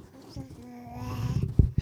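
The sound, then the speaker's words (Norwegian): A baby babbles close to the microphone, making soft voiced coos and syllables that rise and fall, with a few louder bursts near the end. “det er litt plagsom baby her, men den er veldig hyggelig. Skal du si noe i mikrofonen?”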